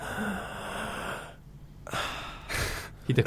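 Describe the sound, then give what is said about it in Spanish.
A person takes a few deep, audible breaths, a long airy inhale followed by two shorter breath bursts separated by brief pauses, a voice imitating breathing as during a doctor's stethoscope exam of the lungs. “Es cuando con el estetoscopio ah, sí. te lo ponen los pulmones y vos empezás a hacer...”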